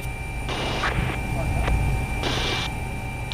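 The Lions 1 rescue helicopter setting down on a meadow beside the road at an accident scene, its engine whine and rotor roar running steadily with two louder bursts of rushing wash. There is no clear speech over it.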